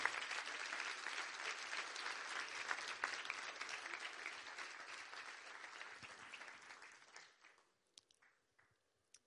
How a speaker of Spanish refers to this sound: Denle un aplauso al Señor, aleluya.